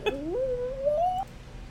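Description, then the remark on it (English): A single long cat meow, fairly loud, rising at the start and then held as a drawn-out wavering cry for about a second before stopping abruptly. No one speaks. “okay, we paused to get the cat.”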